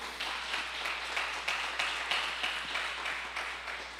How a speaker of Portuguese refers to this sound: Você pode dar mais um aplauso ao Senhor aí?